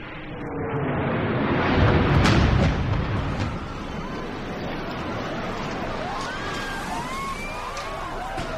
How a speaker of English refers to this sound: But here's something else he has the screen go completely to black, and we listen to audio records of the September 11th attack.